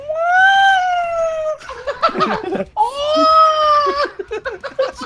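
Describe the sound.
A voice imitates a Pokémon's cry with two long, wavering, yowling wails, separated by a burst of squeaky, chattering vocal noises, loud.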